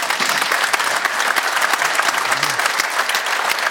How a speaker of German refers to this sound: Und Neven müsste uns jetzt zugeschaltet sein. Da hinten sehen wir ihn. Grüße dich, Applaus für ihn aus München.